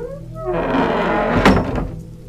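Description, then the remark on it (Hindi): A heavy door creaks open, opened by a watchman after knocking at the gate, with a scraping, groaning sweep followed by a solid thunk midway through. Fairly loud, with no voices. “फिर हमने बाहर से आवाज़ दी और ज़ोर ज़ोर से गेट बजाना शुरू कर दिया फिर थोड़ी ही देर में वो दरवाज़ा खुला”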